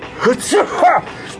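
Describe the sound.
Three quick voiced sneezes in a row, caused by hay fever, each a short rising-and-falling burst about a third of a second apart, moderately loud and high-pitched, with a faint hiss between them.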